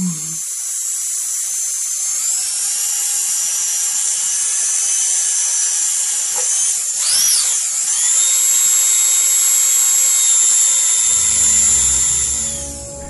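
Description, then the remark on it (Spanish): A high-pitched dentist's drill whines steadily for several seconds, its pitch sliding and dipping briefly mid-way as it revs, loud, with no talking. “Y este sonido es la fresita del dentista.”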